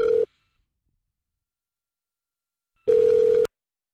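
A steady electronic ringback tone of an outgoing phone call, placed by pressing the green call button, sounds in two bursts, a short one cut off at the start and a longer one about half a second long, separated by silence, clear.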